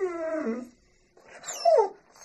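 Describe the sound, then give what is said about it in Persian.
A dog named Jimmy whimpers and howls in two high-pitched whining cries, the first sliding downward, the second rising and wavering, with a short pause between them. “جیمی ناراحتی اونو حس کرد و زوزه کشید”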